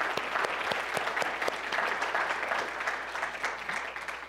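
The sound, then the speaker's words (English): A crowd claps steadily for a few seconds to thank volunteers for their work at VBS. It is a dense patter of many hands, with sharp individual claps standing out, fading slightly toward the end. No one speaks over it. “So, a few seconds of applause does not do justice to all that you did”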